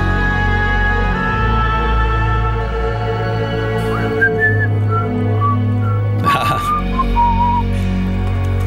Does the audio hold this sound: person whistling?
yes